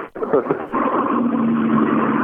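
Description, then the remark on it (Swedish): A rally car in the Group H Classic class comes through, its engine building to a steady, droning low note that holds over a rough, hissy background roar for the rest of the short clip. “Du, nu kommer en bil här.”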